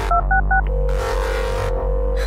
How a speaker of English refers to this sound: She lifts the phone and dials.